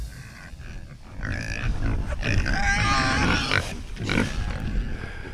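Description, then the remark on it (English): Several pigs grunt and squeal on a pig farm just outside the village of Quin, a busy overlapping chorus of snorts and higher-pitched squeals that swells in the middle, with no one speaking. “I'm uh, just outside the village of Quin and I'm here at a wonderful pig farm.”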